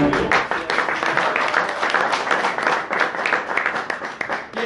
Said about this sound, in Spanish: Perfecto, muchas gracias. Un aplauso fuerte para.